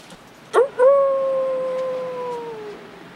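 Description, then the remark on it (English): A single long, wolf-like howl follows a short yelp, holding a steady mournful pitch for about two seconds before sliding down and fading, with no voices present. “That was a true story. Those wolves actually happened.”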